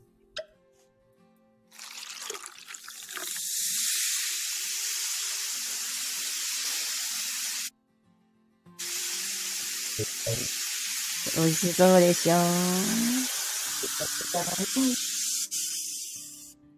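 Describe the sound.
A bottle of Australian sparkling red wine, a Sparkling Shiraz, is opened and fizzes loudly, a steady bright hiss that cuts out briefly and then resumes, with a person speaking a short phrase over the bubbling toward the end.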